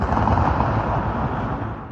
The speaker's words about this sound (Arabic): كانت مريم قاعدة ببيتها لما سمعت صوت انفجار